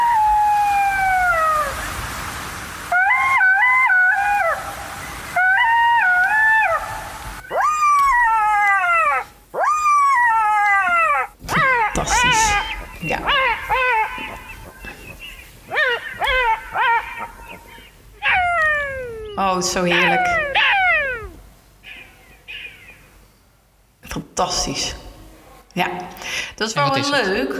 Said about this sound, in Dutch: Dit is de jakhals.